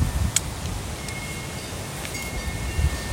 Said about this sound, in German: Da ist wieder mein Windspiel.